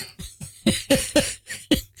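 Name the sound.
cough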